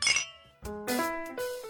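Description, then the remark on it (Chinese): Glasses clink together in a toast: a bright, ringing first strike, then a quick run of three or four more chimes that overlap and sustain their high, bell-like tones. No voices. “聊精酿，聊好酒，跟生活干杯。”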